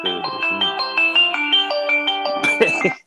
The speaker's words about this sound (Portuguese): que, que é isto? Foi o meu telefone.